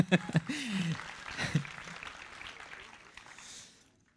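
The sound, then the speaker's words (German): A crowd applauds itself, clapping steadily for a few seconds, a dense patter of hands that gradually thins and fades out, with a few brief voices calling out at the start. “okay, gebt euch mal selbst einen Applaus, bitte.”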